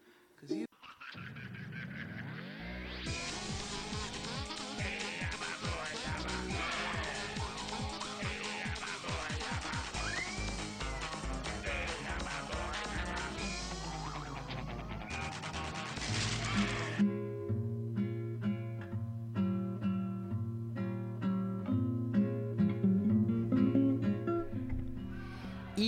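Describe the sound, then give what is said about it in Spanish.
The intro theme of a TV series that aired from 2010 to 2014 plays loudly, starting with a busy, chaotic stretch of swooping tones and crashes, then settling into a steady, rhythmic melody over a pulsing bass. “bueno, ahora que han escuchado la intro, espero que recuerden un poco de cómo era la serie, porque pues por lo menos para mí esta intro sí me, tipo, me la ponen en un momento y te pongo directo que sé cuál es la serie de esta intro.”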